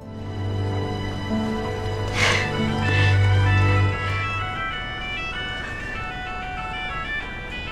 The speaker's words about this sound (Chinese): 可小青却忽略了循环的关键要素，那就是卡农的手机铃声。